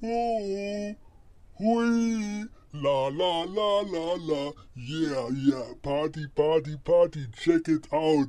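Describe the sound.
A voice run through a voice changer sounds electronically altered and unnatural as it calls out drawn-out exclamations, sings a quick run of syllables, then chants and speaks, fairly loud.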